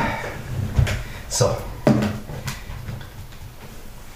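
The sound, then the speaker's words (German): A drawer slides open and shut, with a few short wooden knocks and scrapes, as a watch is put back into it, while a person says a brief word over the handling sounds. “So, meine Quarkuhr kommt jetzt wieder in die Schublade.”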